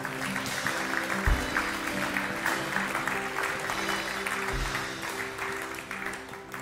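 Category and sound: crowd, audience applauding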